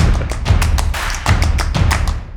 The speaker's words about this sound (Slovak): Počkej, idem, idem vypustiť toho psa sekundu, lebo mi tu kňu. A ty reálne chceš ísť vypustiť psa? To je 10 sekúnd. Ja som myslel, že žartuješ, pokojne. Nie, tuto mu len otvorím dvere.